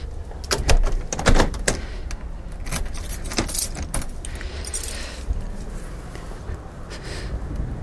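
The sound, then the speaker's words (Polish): Car keys jangle in several quick bursts of metallic clinking, with a brief thud like a car door, over a low steady rumble. No one speaks. “Dobra, trzymam wszystko, kluczyki, ciach.”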